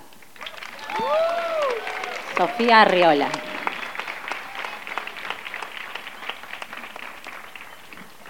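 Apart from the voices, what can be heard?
audience applause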